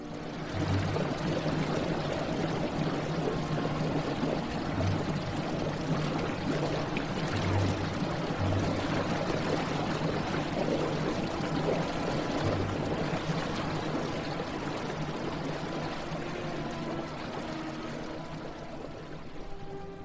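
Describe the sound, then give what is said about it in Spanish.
A river's flowing water rushes steadily and fairly loudly for the whole stretch, a dense, continuous churning with no voices, easing off slightly near the end. “No está de más recordar al profundo y delicioso lago siempre apacible y al tormentoso río.”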